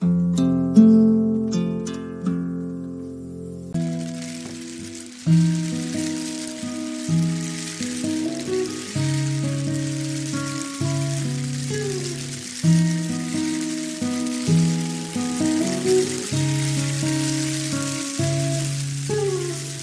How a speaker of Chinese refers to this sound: 周一的清晨还在下雨，打开手机等待你的讯息。